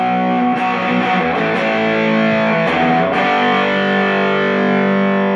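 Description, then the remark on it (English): A loud electric guitar played through a Fuzzrite fuzz pedal, drenched in buzzy, nasal fuzz distortion, plays thick, sustained chords with a few quick changes, playing alone with no voices. “but uh, yeah, I always try to get that sound, you know, that that monkey sound and and uh, Fuzzrites and Treble Boosters, man.”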